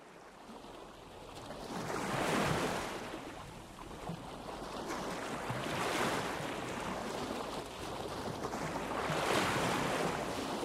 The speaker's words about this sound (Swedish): Lyssna! Hör ni vågorna?